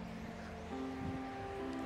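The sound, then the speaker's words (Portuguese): Steady street traffic with many cars passing, a continuous low engine rumble and hum over broad road noise, fairly quiet, swelling slightly partway through. No one speaks. “Ai, cara, vou pausar aqui porque tem tá muito carro aqui.”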